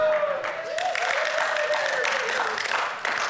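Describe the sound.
An audience claps in a dense, steady burst of applause that holds at an even level throughout, with a faint tonal voice-like sound running underneath.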